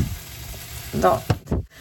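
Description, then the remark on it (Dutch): Avocado sizzling as it fries in a pan, a steady crackling hiss with a couple of sharper bursts near the end, moderately loud. “Zoals je ziet kun je avocado ook bakken.”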